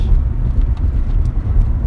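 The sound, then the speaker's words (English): A steady, deep rumble of road and engine noise fills the cabin of a moving car, which is hot inside. The sound is constant and fairly loud throughout, with no voices. “it's so hot in this fucking car.”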